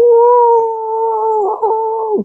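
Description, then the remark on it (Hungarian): A person imitates a seal's singing call: one long, steady, howl-like tone held for about two seconds, loud, wavering slightly near the end before breaking off. “Vagy énekelnek, úgymond, ami egy ilyen egész érdekes ilyen”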